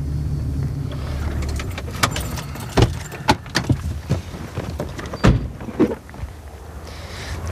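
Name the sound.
car driving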